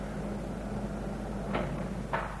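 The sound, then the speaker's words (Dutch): A steady low mechanical hum runs throughout, then two short swishing clunks near the end, like an elevator door sliding open and shut, moderately loud, in a lift in a small apartment building. “Nam de lift.”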